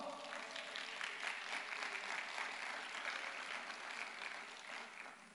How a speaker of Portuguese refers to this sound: Então aplauda o Senhor.